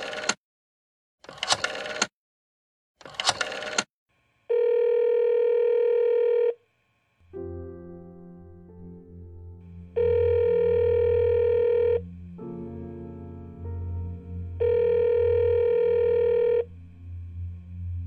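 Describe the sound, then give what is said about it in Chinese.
Schultz calls home to his father: three quick clattering bursts of a phone being dialed, followed by a steady buzzing telephone tone that sounds three times in roughly two-second stretches over a low background hum. “他打了电话回家，第一次和父亲聊了几句。”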